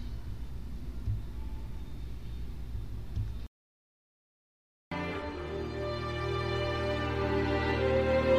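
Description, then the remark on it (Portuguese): A low, steady rumble gives way after a brief silence to a humming engine whose tone swells steadily louder, like a car drawing nearer. No one speaks. “E por falar no Nick, aquele carro é dele, né?”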